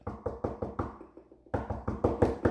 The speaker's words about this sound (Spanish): Y Ginger toca la puerta.